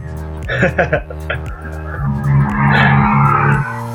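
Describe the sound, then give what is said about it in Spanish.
Street traffic with a heavy garbage truck engine droning and grinding, swelling into a harsh, sustained roar in the second half before easing off. “¿a, quién le está atacando al camión de la basura? A ah, a mí, sí, siempre que escuches tráfico es aquí.”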